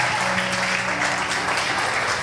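An audience claps steadily for Jesus, a dense, continuous wash of many hands applauding at a fairly loud, even level, with a faint sustained tone and murmur underneath.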